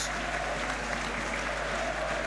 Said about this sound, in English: Sam Dalby's coming to warm up. Cue the applause.